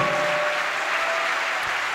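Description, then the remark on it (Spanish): An audience claps together as applause to God, in a steady, dense wash of applause that holds evenly throughout, with no voices standing out above it. “Dale un aplauso a Dios por eso, a su nombre sea la gloria.”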